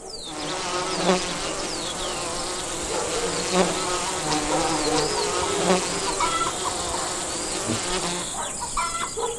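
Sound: bees buzzing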